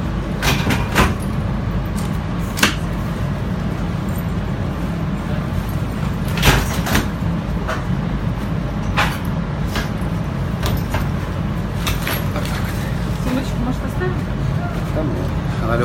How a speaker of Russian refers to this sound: К сожалению, уже стемнело, океана не будет видно, а поезд едет все время вдоль океана. Сан-Диего до Сан-Франциско. 6 часов, по-моему, или сколько там занимает этот поезд.